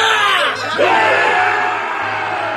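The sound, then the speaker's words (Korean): A large crowd of armed goblins lets out a loud, sustained war cry as they appear from all sides and seize a square, many voices yelling and roaring together, with a brief dip before the shouting surges again and carries on. “그 순간 함성과 함께 무기를 든 도깨비들이 여기저기에서 나타나며 광장을 장악했다.”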